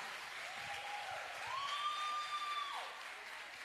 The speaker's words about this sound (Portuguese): Aplauda o Senhor pela sua vida, aplauda.